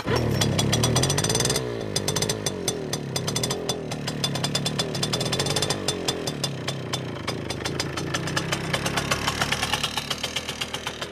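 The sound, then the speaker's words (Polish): A German Simson two-stroke moped engine from 1982 runs loud and raspy, revving briefly at first and then settling into a steady rapid puttering idle, with no voices. “No i przy okazji Simpsona też masz, ale Simpson jest e, niemiecki.”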